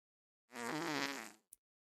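A single drawn-out fart, about a second long, buzzing and fairly loud, ending with a short sharp pop, heard alone with no talking.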